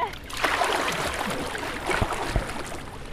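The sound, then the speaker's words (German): Water churns and splashes steadily, with a couple of sharper slaps near the end, as a person swims strokes through the cold water of Copenhagen's harbour basin on a summer day. No one speaks. “Okay, also ich bin jetzt im Hafenbecken hier von Kopenhagen. Das Wasser ist kalt, aber an so einem Sommertag erfrischend.”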